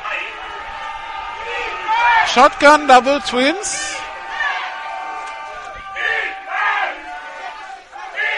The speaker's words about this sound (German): Siehst es auch jetzt in der Teamzone, wie plötzlich da das Leben und die Hoffnung einkehrt, der Jubel.